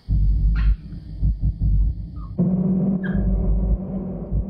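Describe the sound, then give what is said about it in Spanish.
Three two-month-old puppies whimper and let out a few short, high yelps, thin and scattered, against a heavy, steady low rumble that dominates the scene. “¿Crees que unos perros de dos meses van a durar mucho sin su madre?”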